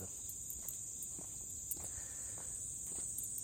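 A steady, high-pitched chorus of insects chirring without pause in a grassy vacant lot in Tokyo, fairly quiet, with a few faint soft taps in the background and no voices.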